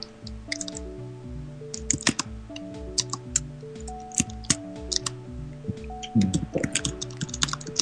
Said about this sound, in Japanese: タイピングの音って気持ちいいですよね